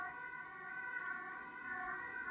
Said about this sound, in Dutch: daar hebben wij een, we hebben een ambulance op de achtergrond.